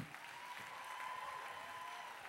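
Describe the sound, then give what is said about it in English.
Sustained applause from a sizable audience for the singers and dancers of the show Vibeology aboard the Serenade of the Seas, a dense steady clatter of many hands clapping at an even level throughout, with a faint tonal hum running underneath. “Let them hear it one more time.”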